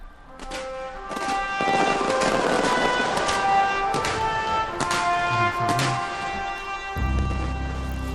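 Fireworks crackle and pop over a stadium in the Philippines at the 30th SEA Games, over a continuous crowd roar, with several sharp bursts scattered throughout and a deeper rumble near the end.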